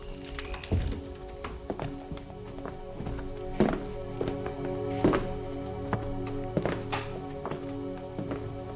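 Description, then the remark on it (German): A door of a house being shut: several dull wooden thunks and knocks at irregular intervals, the strongest midway through, over a steady low hum with no voices. “Los, Tür zu.”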